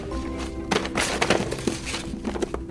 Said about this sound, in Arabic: واذا رف الكتب الخاص بها قد سقط وتناثرت الكتب على الارض اه يا لها من فوضى